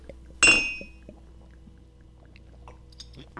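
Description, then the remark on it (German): A single bright clink of beer glasses knocked together in a toast, loud, with a brief ringing tone that fades into quiet background noise and a few faint small sounds. “Also meinetwegen können wir loslegen. Ja, Prost.”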